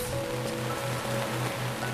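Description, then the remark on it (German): Steady rain patters gently on the roof of a small tent, a dense, even drumming of drops overhead, with a soft, low rhythmic hum underneath and no voices. “Du lauschst dem entspannenden Klang des Regens, der leise auf das Zeltdach klopft”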